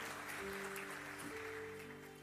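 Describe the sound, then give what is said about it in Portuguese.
An audience claps steadily for a couple of seconds, a dense, even wash of applause at constant loudness, with a low sustained musical tone humming underneath, the applause given to Jesus during a preaching. “Aplauda Jesus por isso.”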